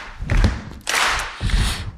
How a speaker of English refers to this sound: I need a little beat. Not too fast, but can I get a stomp, clap, stomp, clap?